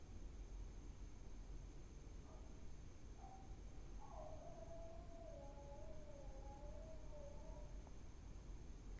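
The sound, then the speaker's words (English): A dog howls faintly at night, one long wavering, slowly falling note after a brief yelp, over a steady hiss of background noise. “Can you hear the dog howling at night?”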